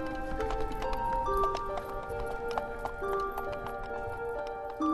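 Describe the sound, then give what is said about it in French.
Horse hooves clip-clop at a steady trot as a horse-drawn cart rolls along a road at night in Brittany, the hoof beats moderately loud over a continuous rumble and sustained droning tones. “Celui qui entend rouler le chariot de la mort sur les routes la nuit, eh bien, celui-là est condamné.”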